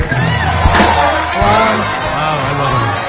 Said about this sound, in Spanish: Este aplauso es tuyo.